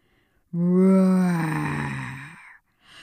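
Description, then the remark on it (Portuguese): A person lets out a single loud, drawn-out growling roar in imitation of a lion, lasting about two seconds before fading off, with no other talking. “O rugido do leão se propaga por quilômetros e quilômetros e ecoa nos ouvidos de James”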